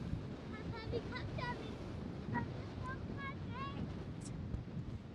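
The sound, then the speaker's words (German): Steady, loud wind blowing from the direction of Belgium, buffeting the microphone with a low rumbling roar throughout, while a voice speaks faintly underneath. “wie bei dir, ganz schön windig, ja.”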